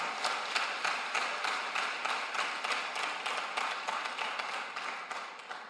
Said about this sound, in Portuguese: Vamos dar mais um poderoso aplauso para Ele que é digno de glória.